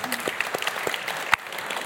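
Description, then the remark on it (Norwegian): An audience applauding, a dense patter of many hands clapping steadily at moderate loudness, with a few sharper individual claps standing out. “Så applaus for det, da.”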